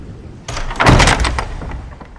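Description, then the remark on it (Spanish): A door is pulled shut with a broad scraping rush and a heavy thud near the middle, followed by a fading rattle; fairly loud, with no talking. “Santi, la puerta. Voy a cerrar la puerta, voy a cerrar la puerta”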